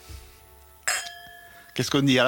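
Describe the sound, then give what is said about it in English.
Wine glasses of the winemakers' own wine touch in a toast with a single bright clink that rings and slowly fades, then people start speaking over the tail of the ring. “Cheers. Cheers. Santé.”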